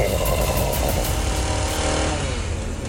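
A chainsaw engine roars steadily at high revs, a loud buzzing drone with a rising and falling whine over about three seconds, no voices, as its blades cut fully through the trunk of a huge Christmas tree that begins to fall toward a cliff edge.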